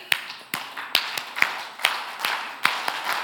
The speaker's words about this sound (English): So if you've been to a game, a baseball game, whatever it is, there's like things that happen, right? So there's clapping that happens. You want to do it with me? Ready?